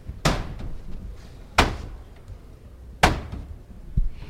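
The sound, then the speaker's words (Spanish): Three heavy, resonant knocks on the large wooden door of the San Isidoro parish church, made by a religious brotherhood calling to enter after its penitential procession, evenly spaced about a second and a half apart, each a loud booming thud that rings out briefly. “esos cirios al cuadril ya está a punto de llamar, vamos a coger el sonido.”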